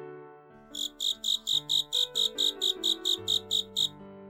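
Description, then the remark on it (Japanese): A big cricket chirps by rubbing its wings together in a steady, even rhythm, about a dozen bright pulses in a row, sounding clear over soft sustained musical notes. “Welcome! chirped a big cricket, rubbing his wings together.”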